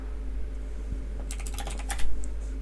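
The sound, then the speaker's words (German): A quick burst of keyboard typing as someone searches online for what Christmas pudding contains, about a dozen crisp key clicks in uneven rhythm over a steady low hum, moderately quiet, with no one talking. “Ich google mal, was da drin ist.”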